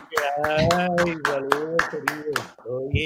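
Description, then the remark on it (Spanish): Steady, evenly spaced claps ring out, about three per second, while a sustained voice talks or sings over them throughout. “Aplausos.”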